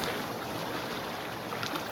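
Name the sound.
sailboat at sea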